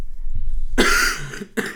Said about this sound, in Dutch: Dan kan ik mijn stem laten rusten op deze vroege ochtend. Ik ga nog een keer even hoesten. Dan ben ik er volledig klaar voor.